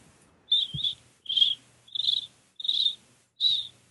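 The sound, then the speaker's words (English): Someone imitates cricket chirping with five shrill, evenly spaced chirps in a steady rhythm, each a short high-pitched trill, clear with no talking. “Actually, that's pretty good. That was, yeah, cricket was, impression there.”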